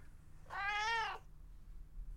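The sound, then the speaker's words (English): A single drawn-out cat meow, clear, rising and falling over about three-quarters of a second before trailing off into quiet. “Merit, where are you? Here, kitty, kitty, kitty.”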